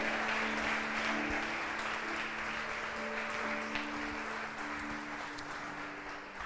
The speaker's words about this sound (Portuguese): Aleluia! Glória a Deus, pode aplaudir o Senhor.